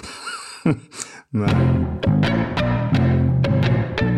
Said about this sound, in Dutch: Moet ik dan nu heel snel een slachtoffer van de week jingle erdoorheen knallen?